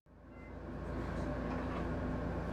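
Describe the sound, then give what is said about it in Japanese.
A steady, low rumble from inside a moving, irregularly rocking train car, with broad rolling noise that swells in right away and holds constant, fairly loud, with no voices. “不規則に揺れる電車の中で SNS を覗き込む”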